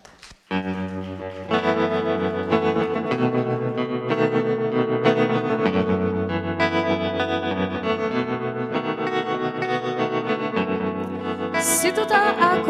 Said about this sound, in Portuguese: vamos à música, vamos ouvir o último tema.